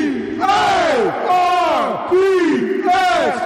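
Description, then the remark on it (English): A crowd shouts together in loud, rhythmic bursts, about four swelling cries with rising and falling pitch, a group cheer during a giveaway, filling the whole clip. “Let's now. do a cheer one more time.”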